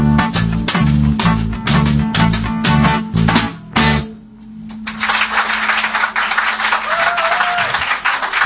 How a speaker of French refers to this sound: C'est bien, mais il faut qu'on peaufine la chose parce que le public, vous l'avez sans doute remarqué, ah n'applaudit qu'à la fin des chansons.